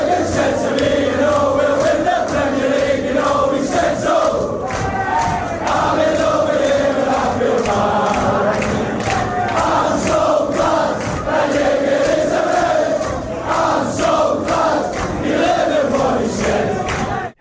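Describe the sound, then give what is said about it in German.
A large crowd of football fans sings a new fan song made for a player, loud and sustained, with a steady rhythmic melody carried by many voices and occasional shouts rising above the mass singing. “Ja, Falke, hier, die haben doch auch einen neuen Song für ihn gemacht.”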